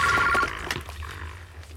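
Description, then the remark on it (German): A telephone bell rings loudly in a rapid trilling burst that cuts off after under half a second, leaving quiet background noise. “Ich muss doch ans Telefon kommen.”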